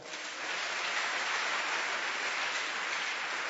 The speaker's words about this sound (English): Clap your hands for the Lord.